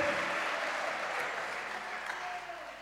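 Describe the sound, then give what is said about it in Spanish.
A church audience applauds for Christ during a sermon, dense overlapping claps forming a continuous wash of sound that holds an even level throughout, with faint voices mixed in underneath. “Dale un aplauso a Cristo, hermano.”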